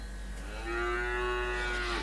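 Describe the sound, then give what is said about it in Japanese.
A single long cow moo, given as a greeting to those who came, a steady low-pitched bellow with rich harmonics that swells in and holds for over a second before tapering off, with no talking. “はい、来ていただいた方には、牛の挨拶で。”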